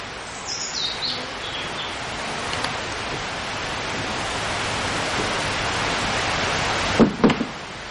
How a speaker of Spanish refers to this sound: En otro momento, León entra al pabellón de esgrima y cierra la puerta tras de sí.